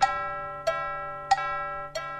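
clock chiming the hour

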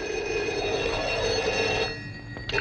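telephone ringing

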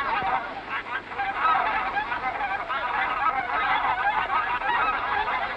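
swans calling

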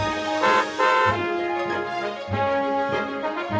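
car horn honking

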